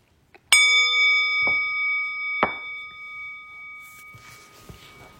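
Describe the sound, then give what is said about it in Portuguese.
A meditation bell is struck once to end a formal meditation practice period, its bright, shimmering tone ringing clearly and slowly fading across several seconds while a couple of soft knocks sound beneath it. “Enfim, desliza na inspiração, se aquieta no centro eu vou convidar o sino a soar mais uma vez para a gente interromper o período formal de prática, mas não precisa se mexer correndo.”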